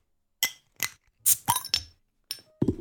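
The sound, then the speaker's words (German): Glasses clinking together several times in quick, irregular succession in a New Year toast, each sharp touch leaving a short bright ring, fairly loud, with light rustling at the end and no talking. “das hier heißt, es ist Zeit fürs neue Jahr, aufs neue Jahr anzustoßen.”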